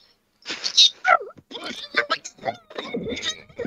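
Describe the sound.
A person's voice mimics a 56K dial-up modem connecting to the internet: a few seconds of high whistles, hissy bursts and sliding screeches in choppy, rapid succession, fairly loud.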